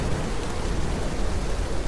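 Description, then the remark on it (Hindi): Heavy rain pours steadily, a dense, continuous hiss with a low rumbling undertone, fairly loud, with no voices. “उस तेज़ बारिश की परवाह ना करते हुए मैं हिम्मत करके उस रोशनी की तरफ बढ़ने लगा”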